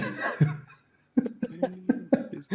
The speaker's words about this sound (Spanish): Hala, la niña, qué tos.